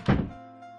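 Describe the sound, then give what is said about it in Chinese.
A mother casually pulls a bedroom door shut with a single dull, solid thunk, its low resonance briefly ringing out before fading into a quiet hum. No one speaks. “老妈将信将疑的随手将门带上。”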